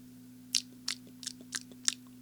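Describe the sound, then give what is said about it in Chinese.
Crunchy chewing of food: five crisp, bright bites in a steady rhythm, roughly one every third of a second, over a faint constant low hum, with no talking. “宝格先生天天吃着各种好吃的东西，这个世界上好吃的东西他都吃过。”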